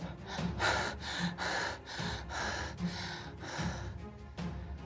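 A man lying stretched out gasps and pants hard for breath after being choked, a steady run of ragged, rhythmic inhales and exhales about twice a second, fairly loud with no talking.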